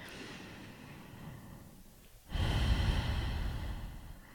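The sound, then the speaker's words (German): A slow, deep breath: a long airy inhale, a brief pause, then a fuller, louder exhale that gradually fades. No talking. “tief atmen heißt jetzt nicht, dass es wahnsinnig anstrengend sein muss oder irgendein besonderes Schema sein muss”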